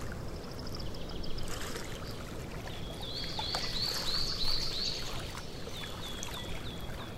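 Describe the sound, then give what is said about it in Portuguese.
Soft, steady lapping of water on Lake Titice in the Black Forest, Germany, fills the background while a group of ducks swims. A bird in the distance repeats short, bright chirping phrases, pausing briefly before another series near the end. “Escutamos o som das águas do lago e o canto dos pássaros ao longe enquanto um grupo de patos nada, deslizando sem pressa alguma pelo espelho d'água.”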